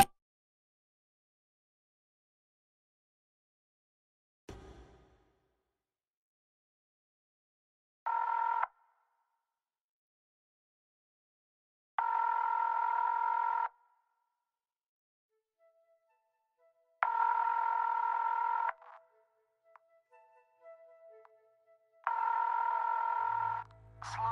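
A click, then a telephone ringing tone sounding four times in long, steady electronic bursts separated by pauses of silence; clear and fairly loud, with no voices.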